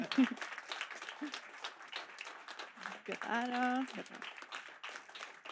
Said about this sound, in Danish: Det kommer noen gaver. Det er bare å klappe for å holde varmen.